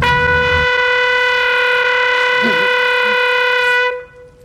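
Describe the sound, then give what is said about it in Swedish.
A horn, blown by Ramsay Bolton's forces as they surround Winterfell, sounds in one long, loud, steady blast with a bright, buzzy tone, holding the same pitch for nearly four seconds before cutting off abruptly. “Han älskar att blåsa i olika tutor det är det första de gör när de, när de omringar Winterfell.”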